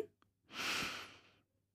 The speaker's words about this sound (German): Denk mal nach, meistens bemerkst du deinen Atem ja gar nicht. Das ist ein Prozess, der ganz selbstverständlich und natürlich abläuft. Wir atmen ein,